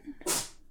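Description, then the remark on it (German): A single short, sharp sneeze from a dog, a quick breathy burst, over faint background murmur. “Gesundheit. Gesundheit.”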